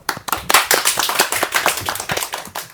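audience applause

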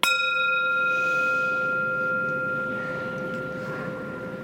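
bell ringing

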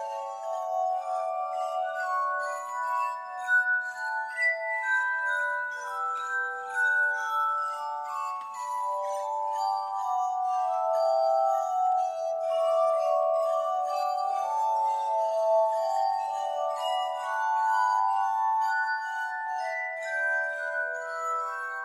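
glass harmonica being played

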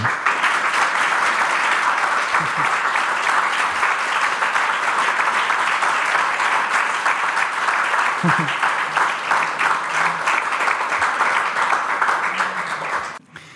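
audience applause

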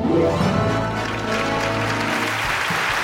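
restrained applause

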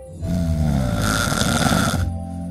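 snoring

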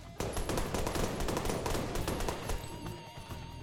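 burst of gunfire

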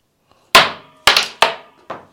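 coin tossed and landing

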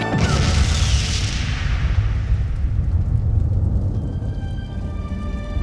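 grenade explosion

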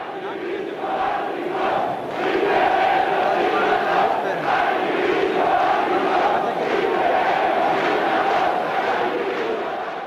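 crowd chanting

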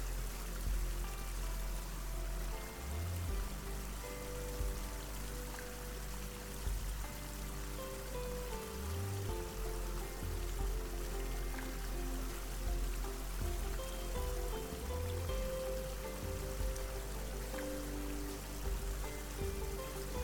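flowing water

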